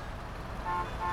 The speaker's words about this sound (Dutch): Het is rond 5 uur in de middag en het verkeer staat al sinds 2 uur muurvast. Het zware geronk van motoren, er klinken toeterende auto's en middelvingers worden geërgend opgestoken.